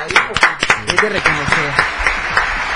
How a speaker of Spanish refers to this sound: ¡Wow! ¡Fuerte los aplausos!